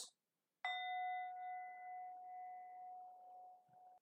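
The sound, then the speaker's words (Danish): A small singing bowl is struck once, a short way from the microphone, giving a sharp onset and a clear, sustained ringing tone with bright overtones that slowly fades over several seconds, alone without talk. “Jeg slår lige på et lille syngskål, så den mm.”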